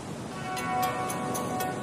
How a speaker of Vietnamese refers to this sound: Lạnh quá Mưa to thế này